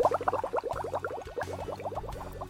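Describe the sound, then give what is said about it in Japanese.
A dense stream of rapid gurgling bubbles, as of something being sunk to the bottom of the sea, bubbling steadily and fairly loud for the whole stretch over a low murky rumble, with no voices. “はい、ということでね、えー、もう海底に沈めたんでね、このことはきれいさっぱり忘れてしまいましょう。”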